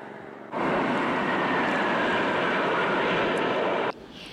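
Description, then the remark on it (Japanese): A loud, steady roar of Blue Impulse aerobatic jet aircraft of the Japan Self-Defense Forces passing overhead during a flight display fills about three seconds, starting and cutting off abruptly, with no voices present. “ブルーインパルスの飛行が始まりましたが路上に駐車している車は1台もありません”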